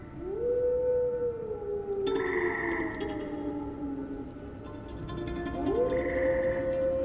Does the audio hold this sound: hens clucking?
no